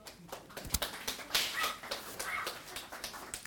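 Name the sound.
dog barking and whimpering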